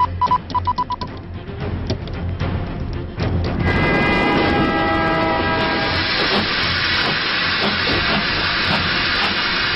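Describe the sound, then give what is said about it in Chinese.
Chairman Mao's special train pulls into Beijing railway station on the evening of 4 March 1950: steady rail rumble with a sustained horn or squealing tone, then a loud, continuous steam hiss spreads over the last six seconds. No one speaks. “一九五零年三月四日晚，毛主席的专列驶进北京火车站，首次访苏活动取得了巨大成功。”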